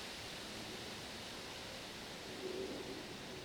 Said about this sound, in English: Oh, here comes the wind.